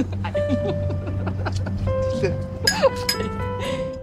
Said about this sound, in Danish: Ja, der bliver fniset rigtig meget her, og det er faktisk bare nogle bobler, som de er i gang ved at hælde op i deres glas, da de har mødt hinanden.